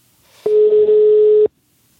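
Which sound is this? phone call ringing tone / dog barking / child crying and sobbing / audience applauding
phone call ringing tone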